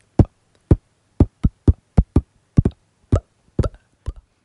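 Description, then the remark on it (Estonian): A voice beatboxes a soft kick drum by imitating a weak letter B: a string of about a dozen short, breathy bass-drum plosives into a microphone, in an uneven rhythm with no talking. “basstrumm teeb äh, näiteks nõrka B-tähte äh,.”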